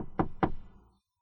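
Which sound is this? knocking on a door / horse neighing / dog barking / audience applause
knocking on a door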